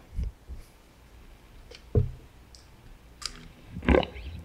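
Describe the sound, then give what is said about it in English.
A few scattered clicks and soft knocks, like a guitar cable being plugged into a jack, with brief crackly pops spread across a quiet background and no talking. “I don't know if it's too big of a hassle, but I'd love to hear the Stingray in comparison to the Jaguar. Can you plug it in?”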